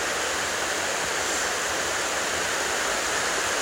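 A powerful waterfall on a high-water day roars steadily, heard standing very close in front of it, a dense, unbroken wash of rushing water filling the whole clip with no pauses or voices.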